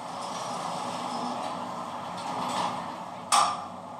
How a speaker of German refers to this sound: Ein Aufzug, die Türen öffnen sich.